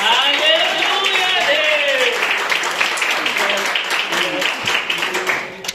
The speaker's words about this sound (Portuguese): E as palmas que adorem a Jesus.